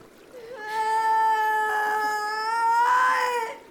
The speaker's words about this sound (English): You heard that scream.